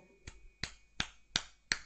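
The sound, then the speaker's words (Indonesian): Five light, sharp hand taps land at a steady pace, a demonstration of the tapping used in ruqyah, each a crisp slap with a quick decay, growing slightly brighter toward the end, with no talking. “Yang ketiga, kalau memang itu jelas-jelas ada gangguan jin, menggunakan pukulan atau tepukan. Tapi pukulan dalam rukyah itu tidak seperti pukulan dalam tinju.”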